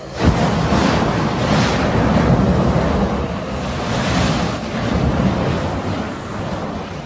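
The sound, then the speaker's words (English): A man in Kentucky uses a flamethrower to blast snow away, in a loud, continuous roaring rush that surges and eases in waves for several seconds, with no voices. “Blowing Snow With Flame”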